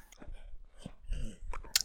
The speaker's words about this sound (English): All right. So you do hear what sounds like munching on flesh.